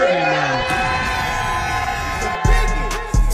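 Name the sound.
studio audience cheering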